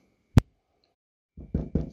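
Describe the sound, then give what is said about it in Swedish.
Knocking on the large wooden gate of Hobersgubben's big cave in a folk tale: one sharp rap, a short pause, then three heavy, resonant thuds in quick succession, fairly loud with no voices. “Så pigan satte på sin rock och traskade ner till Hobersgubbens stora grotta och knackade på hans stora, stora träport.”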